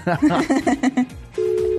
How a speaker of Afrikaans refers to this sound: Antwoord jou foon